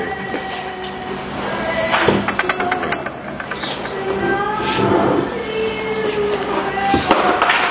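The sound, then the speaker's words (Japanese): A mobile phone drops and clatters, giving a few sharp knocks and a brief rattle spread over several seconds, with low murmuring voices and a steady background hum underneath. “携帯が落ちましたいいけど 後で拾いますですね”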